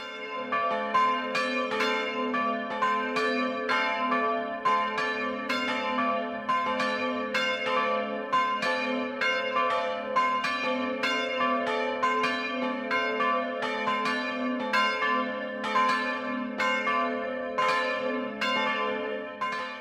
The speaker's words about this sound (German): Es ist 12 Uhr. Das Mittagsläuten kommt heute von der katholischen Pfarrkirche St. Michael in Trondorf im niederbayerischen Landkreis Landshut.